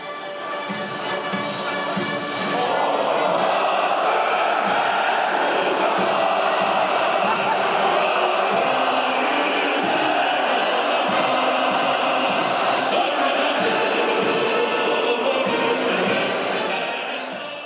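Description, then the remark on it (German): A huge stadium crowd, about two thirds of the spectators, sings the Turkish national anthem together, a loud, sustained wash of voices that swells after a couple of seconds and carries on steadily without pause. “und zwei Drittel der Zuschauer in einem Stadion schmettern den Text der türkischen Hymne auf das Grün.”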